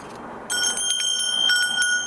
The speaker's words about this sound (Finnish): Mä näytän tämän yhden kellon vielä tää. Muista, mistäköhän me Barcelonastakohan me toi ostettiin.